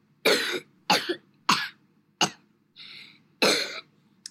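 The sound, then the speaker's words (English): A series of sharp coughs played from a soundboard, about five harsh bursts spaced roughly half a second apart, with a softer raspy throat-clearing sound in the middle, with no talking. “I also have a coughing track in case I um I was I was supposed to talk about that when I was at the doctor.”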